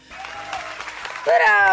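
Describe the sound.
A TV talk show studio audience applauds a dermatologist with steady, dense clapping, and a loud cheering voice rises over the applause near the end as it grows louder.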